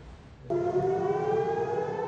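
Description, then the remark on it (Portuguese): An air raid warning siren in Ashkelon, southern Israel, sounds as Hamas rockets begin to fall. It starts abruptly and holds a loud, steady wailing tone with strong harmonics, sustained without talking over it. “O alarme soa.”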